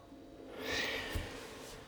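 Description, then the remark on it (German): A horse, one of Penny and Miss Dixie, in a stable at Rosenborg gives one breathy, rushing snort that swells and fades over about half a second, followed by a brief soft thump. The sound is quiet, with no voices. “Schnauf, Schnaub.”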